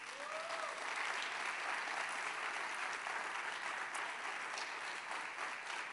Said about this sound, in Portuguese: já com as palmas, vai pegando o ritmo e vamos cantar parabéns, só que sem ninguém do louvor. Vai lá.